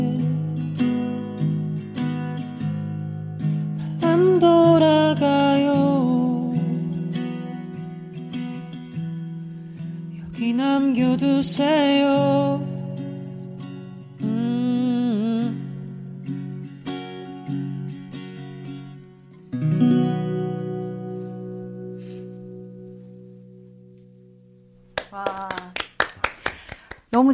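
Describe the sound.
A live cover performance of a song: a solo voice sings a mellow melody over steady, sustained accompaniment, then the music fades and a short burst of applause and clapping follows at the end.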